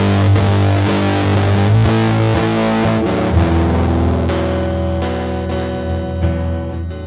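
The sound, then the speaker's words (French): A heavily distorted electric guitar in a technical demo plays sustained, saturated chords with a thick, buzzing low end, shifting chords every second or so before ringing out; loud throughout with no voices. “Ça, c'est la guitare.”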